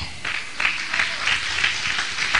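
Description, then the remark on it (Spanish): An audience breaks into steady applause for Christ during a sermon, many hands clapping together in a dense, continuous patter with a few louder bursts, no voices standing out above it. “Ok, un aplauso a Cristo.”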